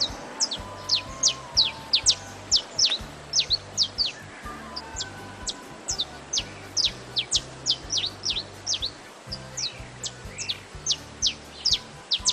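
A saffron finch (canário-da-terra) sings a vigorous run of sharp, high, chirpy notes grouped in short, rapid phrases that continue throughout, over a low, steady background hum, with no talking.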